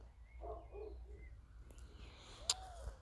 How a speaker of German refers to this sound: Die Taube, die ganzen anderen Vögel, es ist so frühlingshaft, meine Güte.